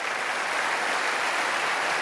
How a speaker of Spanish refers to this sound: No, no, tienen que aplaudir más fuerte que eso, que se escucha en el mundo.